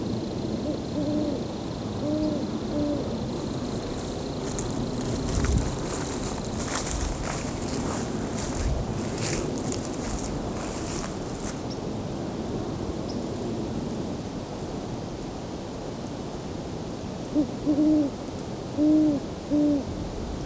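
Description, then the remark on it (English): Deep, soft hoots of a great horned owl, a short series near the start and another near the end, over steady outdoor background noise and some rustling. “Great horned owl.”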